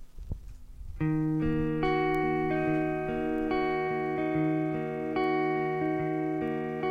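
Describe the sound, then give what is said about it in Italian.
An electronic music intro: after a second of low rumble, loud sustained synthesizer chords enter and shift steadily from note to note, droning with no vocals. “Questa si intitola … ed è un pezzo veramente, veramente da pelle d'oca”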